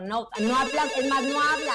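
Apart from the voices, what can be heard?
telephone ringing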